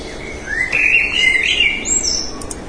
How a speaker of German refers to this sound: Man hört es am Hintergrund. Wir hören Flugzeuge, verschiedenste Vögel. Und auch dieses Jahr wieder, wer uns ähm, mindestens fünf verschiedene Vogelarten, die hier zu hören sind, nennen kann, ähm, der gewinnt nichts.